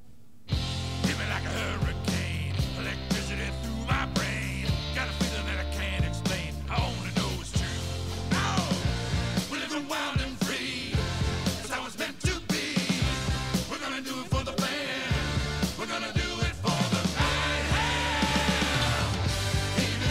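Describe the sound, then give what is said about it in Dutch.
A loud, full-band rock song from an album plays steadily for the whole stretch, with driving bass and drums under high, cartoonish singing voices of puppets. “ik heb een fragmentje van, eh, van een van de nummers. … heet het.”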